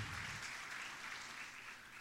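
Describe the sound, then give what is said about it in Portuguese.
An audience applauding the Lord during a sermon, a dense steady wash of many hands clapping at once, holding a fairly even level for the whole stretch with no voices standing out. “Você podia aplaudir o Senhor por isso.”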